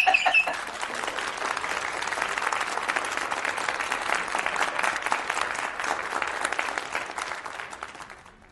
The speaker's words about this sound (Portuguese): Pô, bota, bota palmas, eu quero palmas.